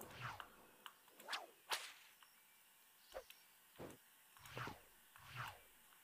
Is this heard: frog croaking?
no